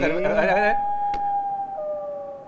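A loon's call: a rich, wavering cry that settles into a long, pure sustained wail, clear and prominent, with a brief click partway through as the tone slowly fades.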